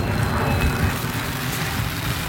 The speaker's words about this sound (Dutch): Het is nu echt gaan regenen en de KLM scheurt over ons heen